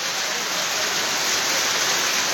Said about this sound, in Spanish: cómo llueve.